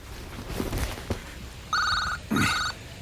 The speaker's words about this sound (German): Äh, Moment, mein Handy.